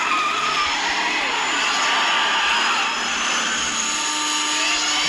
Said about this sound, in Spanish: El condensador de flujos, aquí está. Que no se diga que Roy no estaba preparado. Aquí está, ¿se oye?